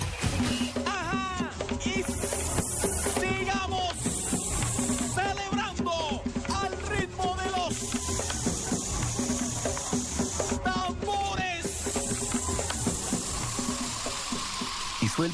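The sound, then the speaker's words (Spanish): A Bayer effervescent aspirin tablet fizzes in water, a steady, dense crackling hiss that runs throughout, overlaid by warbling voice-like tones. “Aspirina efervescente alivia mucho más rápido porque entra disuelta tu cuerpo.”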